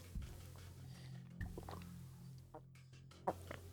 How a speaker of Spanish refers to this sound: Perdón, me estoy ahogando en mi propia saliva. Déjenme tomar un poquito de agua.